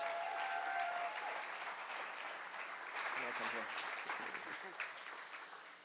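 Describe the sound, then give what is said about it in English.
A large audience applauds steadily for several seconds as the speaker's wife comes to the stage, a dense, sustained wash of clapping with some cheering mixed in, loud throughout before tapering slightly at the end. “So can you give it up for my wife”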